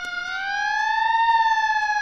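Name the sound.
police or ambulance siren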